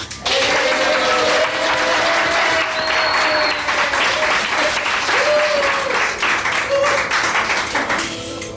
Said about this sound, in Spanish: Oye, te han aplaudido más que a mí.